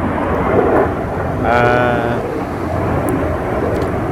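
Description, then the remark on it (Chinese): A loud, steady rumbling roar of one of many airplanes passing overhead, with a rising whine swelling briefly partway through; a person makes a short murmur beneath the engine noise. “哇，这飞机真的很多哎。”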